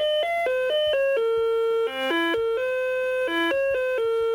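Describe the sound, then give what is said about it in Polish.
A wireless doorbell chime plays a classical melody in clear electronic tones, a run of quick stepping notes with a couple of longer held ones, loud and close with no voices. “Bardzo ciekawa interpretacja tegoż klasycznego utworu.”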